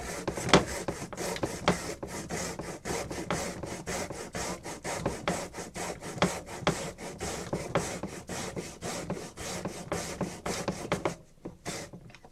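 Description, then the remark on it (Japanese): A carrot is grated briskly on a grater fitted with a holder that presses it down from above, making loud, steady rasping strokes in a quick repeating rhythm that continue for most of the time before trailing off near the end. “おろすやつのあの押さえ上からかって押さえ込むやついいですね手が危なくない”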